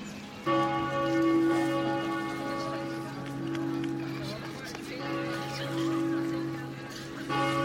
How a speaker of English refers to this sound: Well, later on, a more pleasing sound permeates throughout the city the bells of Fulda Cathedral.